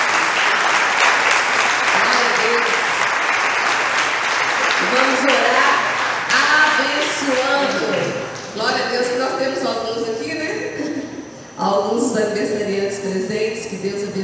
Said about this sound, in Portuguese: Vamos aplaudir esses preciosos irmãos.